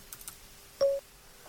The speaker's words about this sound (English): Okay, and let me do some offline voice dictation and we'll see what happens. So I'm going to press my function key twice. You hear a beep and then I'll start talking.